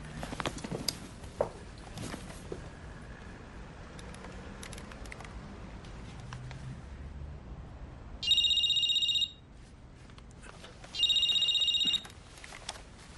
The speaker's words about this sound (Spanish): Llama por teléfono.